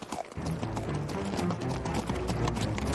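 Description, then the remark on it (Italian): Horses' hooves clip-clop steadily as the horses are brought to a stop, a busy overlapping rhythm of hoofbeats that stays loud throughout with no voices. “Ferma i cavalli, Kit!”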